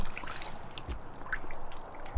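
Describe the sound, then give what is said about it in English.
Water trickles and drips off a heavy plant root ball in a steady, irregular patter, with scattered bright droplet plinks over a soft continuous splash; no voices. “Let's get that water off.”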